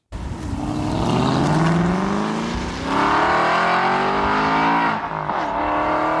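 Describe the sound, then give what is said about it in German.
A car engine revs hard, its pitch climbing steadily, easing briefly, then rising again in a second strong run-up. Loud, with no one talking. “Aber jetzt bei diesem spezifischen Motorengefährt, Gefährt. Also Auto.”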